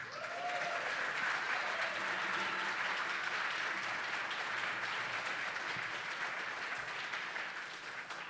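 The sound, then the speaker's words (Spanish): Steady, dense applause from an audience for a drummer at a live music performance broadcast on Radio UNAM 96.1. It is a continuous wash of many hands clapping at an even loudness for several seconds, with a faint tone briefly audible near the start. “Un fuerte aplauso para … en la batería.”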